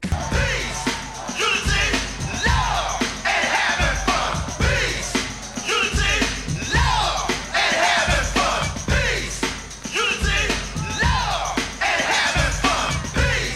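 An early hip hop rap song, the first considered of the style, released on radio in 1979, plays loud and continuous, a steady bouncing beat with thumping bass pulses under energetic, shouted-sounding rapped vocals.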